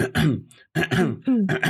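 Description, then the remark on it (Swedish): A person clears their throat, three rough, forceful rasps in quick succession with a short gap after the first, with no speech. “Jag hostar och harklar mig i allas öron.”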